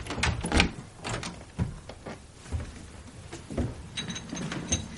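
A hotel room door being handled as a hotel waiter arrives: a few sharp knocks and clunks followed by scraping, creaking movement, with scattered mechanical rattles and a faint high tone near the end.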